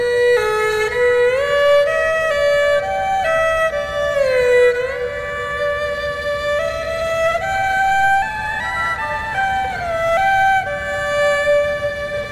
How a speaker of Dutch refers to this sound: Dat is toch wel interessant, die, instrumenten, die Aziatische instrumenten die wij minder goed kennen van klanken, om ze even te laten horen. Eh, we hebben hier bijvoorbeeld de erhu-viool, die klinkt zo.